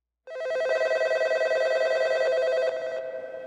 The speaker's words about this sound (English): It's May 28, 1990, and the Toronto Metro PD's phone lines are ringing off the hook.